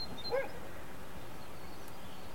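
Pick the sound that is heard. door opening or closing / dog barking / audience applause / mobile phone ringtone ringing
dog barking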